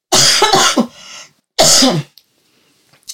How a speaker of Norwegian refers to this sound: Uh, hoster sånn.